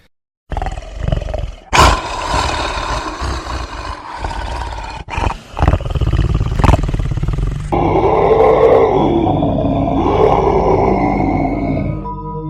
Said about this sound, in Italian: Poi vidi il suo petto spalancarsi in una gigantesca bocca, mentre metteva le stesse urla che avevo sentito le notti passate.